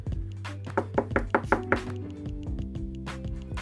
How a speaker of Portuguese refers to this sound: Um dia, bateu um rapaz na porta dele.